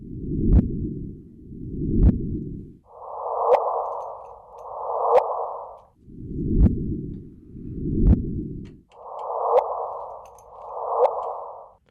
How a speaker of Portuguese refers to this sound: conseguimos encontrar o som de, de, de, o som das ondas gravitacionais. Estão preparados para ouvir o som das ondas gravitacionais?